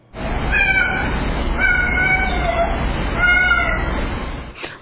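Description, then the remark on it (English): A male cat meows continuously in long, drawn-out, wavering cries, several calls running together over a steady hiss of low-quality recording, captured by a security camera and enhanced. “And then the owner believes the cat said, Mom, where are you, Mom?”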